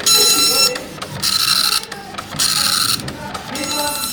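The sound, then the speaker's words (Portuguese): A dot matrix printer prints in loud, raspy, screeching bursts, each line a buzzing rattle lasting about half a second, separated by brief mechanical pauses as the head returns. “Impressora matricial que é aquele barulho.”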